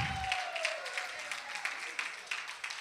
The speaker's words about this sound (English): On the count of three, just clap your hands and shout unto the Lord with the voice of triumph. One, two, three. Hallelujah. Woo! Praise God.